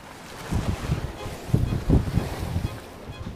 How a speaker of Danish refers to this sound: Men kun tre år senere, i 2006, blæste ligesom i dag fra nord og oversvømmede huset.